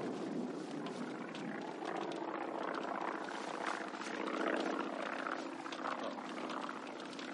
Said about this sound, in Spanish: ¿Ha cogido alguien el número de ese avión?